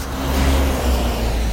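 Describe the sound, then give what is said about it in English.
A car passes by on a street, its engine a steady low rumble with a broad whoosh of road noise that holds loud throughout, no voices heard. “I apologize for the noise, but I'm on the street.”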